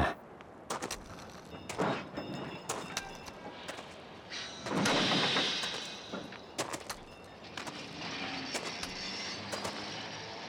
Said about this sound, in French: un funiculaire.